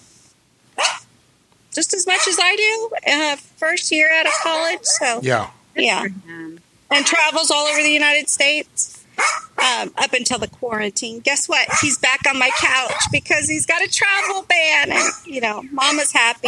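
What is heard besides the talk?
dog barking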